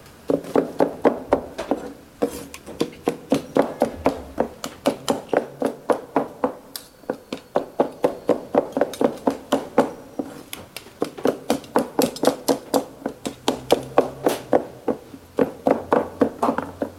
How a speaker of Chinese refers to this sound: 我们今天也是特地把这些西安有特点的声音带给各位。这个形状就是剁肉夹馍的声音的形状。